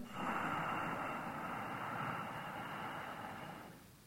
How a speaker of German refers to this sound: Haltet kurz die Luft an, fühlt diese wärmende Energie und atmet aus mit diesem Hauchklang und spürt auch wieder diese warme, kurze Atempause. Atmet wieder ein mit diesem Hauchklang